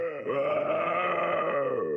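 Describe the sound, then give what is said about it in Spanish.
Deep, raspy, thick guttural voices growl and groan in a continuous drone, steady for about two seconds, with no intelligible words. “esos sonidos guturales de antes empiezan a volver unas voces igual de gruesas, un tanto rasposas”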